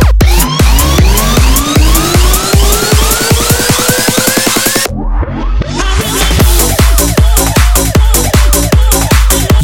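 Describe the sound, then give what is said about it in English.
A siren wail climbs steadily over loud, rapid pounding beats, rising for several seconds before cutting off as the heavy rhythmic thumping carries on. No one speaks. “sirens.”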